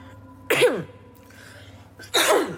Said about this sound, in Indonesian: eh, batuk gak sembuh-sembuh. Tapi udah negatif kok. Jadi aman.